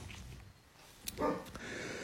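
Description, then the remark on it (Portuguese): A dog named Luna, excited during a Zen Dharma practice session, gives a couple of brief, excited yelps and whimpers, one sharper bark-like burst followed by a shorter whine, over a low background hum. “Os cachorros são sensíveis, né?”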